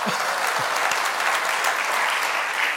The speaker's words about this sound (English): Go ahead and clap if you didn't like it. No, I don't. Go ahead and clap if you did. Yeah!